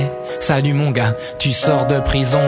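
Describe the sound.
A man raps in a steady, rhythmic delivery over sustained acoustic piano chords that ring beneath his voice, close and fairly loud, in a sparse piano-and-voice arrangement.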